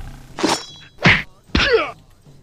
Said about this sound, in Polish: Co mi tam klikasz? Jakieś ciosy.